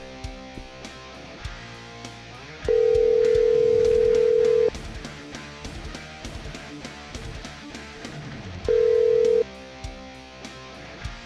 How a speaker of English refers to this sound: Let me give him a call. He's waiting over there in Orlando.